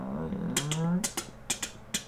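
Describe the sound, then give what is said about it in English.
A mechanical door-opening sound effect from a video game: a low grinding creak that rises in pitch, followed by a series of sharp metallic ratcheting clicks spaced in a steady rhythm. “oh hearing that noise shamble, before the door opens.”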